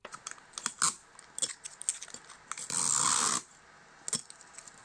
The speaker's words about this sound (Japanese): これテープカッターの音ですね